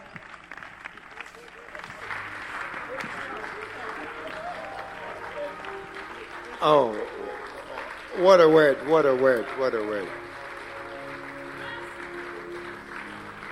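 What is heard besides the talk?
audience applauding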